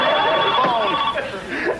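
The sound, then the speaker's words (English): A telephone rings steadily and fairly loud, its bright electronic tone sustained through the short stretch, with some indistinct vocal sounds mingling underneath. “Gotta get the phone.”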